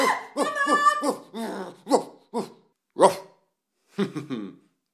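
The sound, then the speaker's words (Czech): A dog barks loud and insistent at a passing mail carrier: a rapid run of barks, then several spaced single barks, ending with a quick cluster of three or four. “No, tak můžete si toho psa zavřít.”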